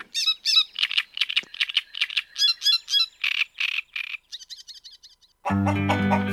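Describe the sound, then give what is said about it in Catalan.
A great reed warbler, which sings and breeds in reedbeds and is the characteristic sound of spring and summer there, sings loud, harsh, croaking phrases in quick repeated bursts, shifting to a higher rapid chatter before music abruptly takes over at the end. “I el balquer, que és una petita au que substitueix a l'ocenyol bord dintre els, els anillars, cantant i criant per tots els canyars, i que n'és el so característic de primavera i d'estiu.”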